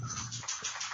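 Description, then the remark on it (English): A dog shakes itself off, its collar tags jingling in quick metallic bursts over a soft flapping rustle, lasting about a second with no one talking. “That was my dog shaking.”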